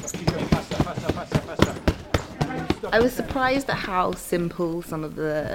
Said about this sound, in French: a le sourire aux lèvres quand elle frappe contre un sac de boxe. Elle écoute attentivement les conseils de l'instructeur qui lui dit de taper plus vite.